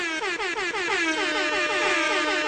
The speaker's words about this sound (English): Triple air horn action.